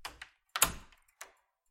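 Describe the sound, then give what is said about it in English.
A door swings shut with a solid thud, preceded by two light clicks of the handle and followed by a brief latch click, with no voices. “She blew him a kiss and shut the door.”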